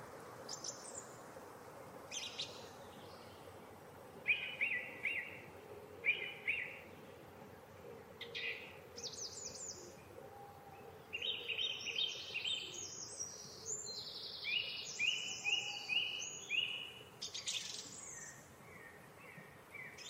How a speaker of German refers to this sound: Lass uns doch zusammen einfach etwas in die Geräusche des Waldes reinhören.